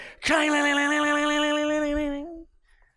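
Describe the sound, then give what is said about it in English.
A voice imitates coins dropping into a horn, producing a single loud, sustained, resonant droning tone that holds steady for about two seconds before cutting off, with no other talking. “And they would sound these horns so everybody would look and then they would drop in the coins and it would go”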